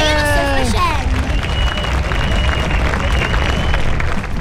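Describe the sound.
Steady, loud applause with cheering runs throughout, opening with a voice gliding downward in pitch, and faint high whistle-like tones drifting over the dense clapping.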